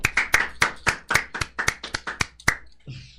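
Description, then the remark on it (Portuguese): A brief round of applause on a show, asked for by the host for a guest: about a dozen sharp, crisp claps in a quick, fairly steady rhythm, loud and without talk, fading out with a faint low rumble at the end. “e queria pedir uma salva de palmas aqui para todo mundo, para ele.”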